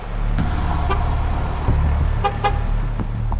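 A car drives past with a steady engine rumble while its horn gives a few short honks, and traffic noise fills the background.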